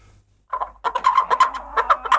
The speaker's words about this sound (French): Une poule bleue. C'est incroyable qu'elle fasse du bruit.